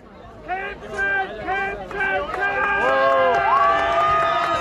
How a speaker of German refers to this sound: Der Festplatz brummt, überall läuft Musik. Gleich am Eingang stoße ich auf eine Menschenmenge. Ich komme gerade richtig zum Finale im Maskrug-Stemmen.